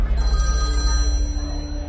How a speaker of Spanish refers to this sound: una llamada en número oculto me apareció en el móvil. Yo asustado pero a la vez decidido, contesté.